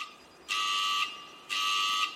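A fire station alarm sounds in two loud, shrill electronic blasts, each about half a second long with a pause between, ringing clearly with no one talking.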